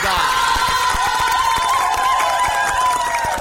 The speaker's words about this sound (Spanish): Así que Jujutsu Kaisen tiene el premio Emilia de Oro para mejor. Segunda temporada, nueva entrega, muchachones. Así que un aplauso para Jujutsu Kaisen.